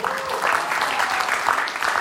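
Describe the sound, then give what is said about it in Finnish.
A Christian audience breaks into steady applause after a doctor's statement about healing through believers' prayer is read out, a dense wash of many hands clapping at an even loudness for the whole stretch, with no voices standing out. “Nyt voi saada aplodit”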